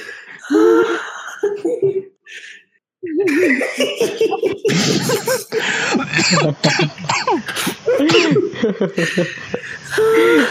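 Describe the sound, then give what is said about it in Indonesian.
Harsh coughing bursts from a person who is eating come in a sputtering series, mixed with throat-clearing, gasps and breathy vocal sounds, with brief voiced noises between fits. “Siapa mau batuk sih banget sih?”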